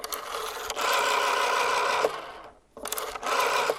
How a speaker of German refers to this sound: Kaum etwas klingt analoger als ein Wählscheibentelefon. Hier wurden Ziffern in Stromimpulse umgewandelt, um den Weg zum gewünschten Gesprächspartner zu bahnen.